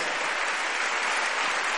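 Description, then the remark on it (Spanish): Loud, sustained applause from an audience given to the Lord Jesus Christ, a dense steady wash of many hands clapping with no pauses and no voices over it. “Le damos un aplauso fuerte al Señor, somos del Señor Jesucristo.”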